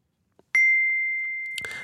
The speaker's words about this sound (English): exactly 11:57 Friday noon, I receive a push notification on my phone. It's a text from Søren Brunsgaard from Center for Podcasting giving me Jon's email.